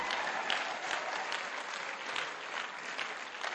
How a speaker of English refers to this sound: Come on, let's give them a clap, all the grey haired older people.